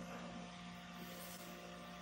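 An electric fan runs with a steady whirring drone and a low motor hum, constant in level throughout, with no voices.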